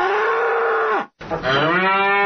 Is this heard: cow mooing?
yes